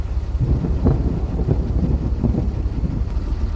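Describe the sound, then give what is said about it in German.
Steady, blustery wind roars and buffets without pause on a ship at sea as the weather worsens, heavy low rumbling gusts swelling and easing over the sound of rough water around the ship. No voices. “Das Wetter wird immer schlechter.”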